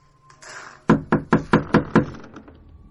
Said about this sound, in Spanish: El marido llamó a la puerta principal.